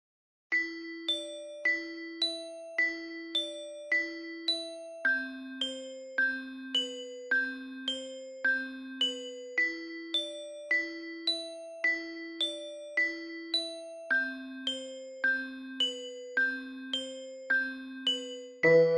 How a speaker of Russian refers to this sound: Теперь, собственно, вот про этот самый Dungeon Synth после вот этой перебивки, наверное. Сейчас, наверное, будет перебивка.